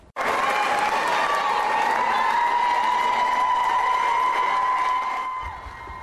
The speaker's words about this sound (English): round of applause greeted State Representative Jennifer Gross inside the State House. She's the sponsor of House Bill 248, which is aimed at blocking vaccine mandates from being implemented at businesses.